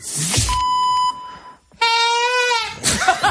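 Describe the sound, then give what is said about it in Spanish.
A reedy, slightly hoarse chifla pan-pipe whistle sounds two loud blasts: a steady held note, a short gap, then a breathier, wavering second note, with no one speaking. It is the acoustic signal that opens the radio programme Agropopular. “Nos ha quedado hoy la chifla un poco afónica.”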